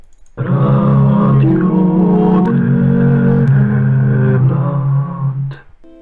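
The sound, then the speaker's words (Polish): A short listener-submitted jingle of loud, buzzy sustained notes, stepping between a few pitches over about five seconds, with a gruff, engine-like timbre before cutting off abruptly. “No, więc był taki jingle … jeszcze na samym początku.”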